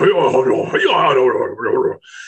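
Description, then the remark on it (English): A voice imitates so-called samurai speak, harsh, yelling speech-like sounds like two Japanese men yelling at each other, in a rapid, wordless burst for about two seconds, loud, ending with a brief hiss. “And they call it the samurai speak because it sounds like two Japanese guys yelling at each other.”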